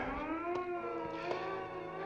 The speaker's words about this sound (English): I don't know, somewhere in the distance I heard a siren.